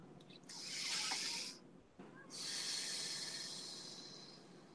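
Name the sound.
deep breathing exercise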